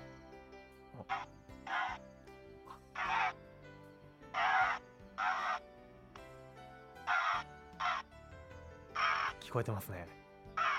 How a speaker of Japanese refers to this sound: これカラスのカラスの声カラスの声をこうちょっと加工したものですね、うんまあ、カラスにこう聞きやすい周波数にちょっと合わせてなるほど加工してあって、はい、あのー、ちょっとなんか苦しそうな 声ですよね